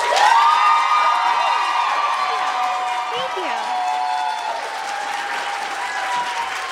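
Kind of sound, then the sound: crowd, audience clapping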